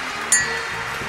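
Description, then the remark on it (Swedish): A single bright clink of water glasses touching in a toast, a short ringing chime that fades quickly over a steady, soft background hiss. “var, jag, jag, jag har också mitt vatten här, nu skålar vi. Skål. Alltså, Skål kling.”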